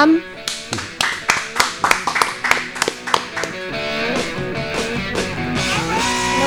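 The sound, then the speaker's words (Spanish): Audience applause breaks out as a steady, rhythmic clapping for about three seconds, with music playing underneath, then the clapping gives way to music and singing voices. “Bueno, un aplauso”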